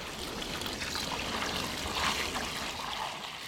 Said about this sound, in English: are taking turns pouring buckets of sap into two big rectangular metal pans. They're about six feet long and a few feet wide. They're laid over a wood burning fire that gets the sap boiling.